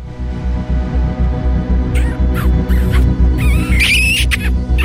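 Repeated squeaky kissing smooches from people in the back seat of a car come in quick bursts during the second half, loud, over a steady low throbbing beat, with no talking.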